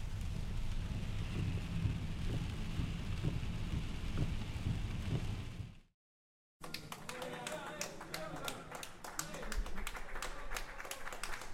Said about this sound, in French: Là, gros orage. Ah la vache Oh là là, ils vont pas être bien Ah là, un flotte sévère. Hein. Gros orage.